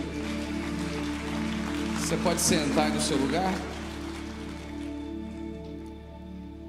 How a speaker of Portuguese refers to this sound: Vamos aplaudir a Jesus bem forte, se você pode.